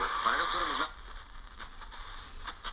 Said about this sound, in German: Und hier haben wir auch schon diese Störung, die man so überall ja, hat. Hier ne? im Haus haben wir ganz gewaltige Störungen. Hier oben Lampe. E ja. Das ist jetzt Mittelwellenempfang